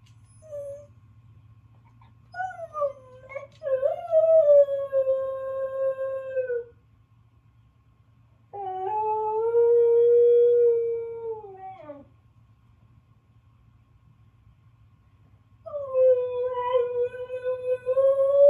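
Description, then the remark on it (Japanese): A Hokkaido dog named Toichiro howls in three long, drawn-out bursts separated by pauses, its voice rising and wavering into whiny, whimpering tones over a steady low hum. It cries at 6:40 in the morning on the Toyohira River riverbank, eager to be taken for a walk. “北海道犬《北海道狗》”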